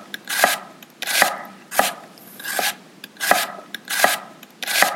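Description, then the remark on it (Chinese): A knife chops an onion on a board, cutting the other parts first and leaving the brown-centred root end untouched, about seven crisp, evenly spaced cuts roughly once every three-quarters of a second, each with a short juicy crunch. No one speaks. “不要先去碰它，把别的地方先切了，你就不会流眼泪了。”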